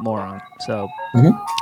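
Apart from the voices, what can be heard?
ice cream truck jingle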